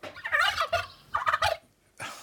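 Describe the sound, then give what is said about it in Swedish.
A quiz team's answer-button buzzer sound effect made of a turkey gobbling, the button of the Ytternäs team: three quick, warbling gobble bursts, loud, with short gaps between them and no talking. “Ska vi lyssna på era knappar igen, hur de låter, så vi minns?”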